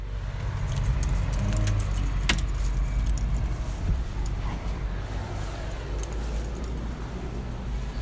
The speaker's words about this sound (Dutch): Zo, dan geef ik jou de, ja. de sleutel weer